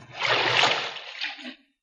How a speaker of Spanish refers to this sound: Abrieron la puerta y el sargento regó el agua.